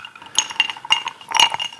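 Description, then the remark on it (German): Drinking glasses clink together in a toast, several bright, ringing taps in quick succession with lingering tonal overtones, fairly loud, with no talking. “Cheers, vielen Dank.”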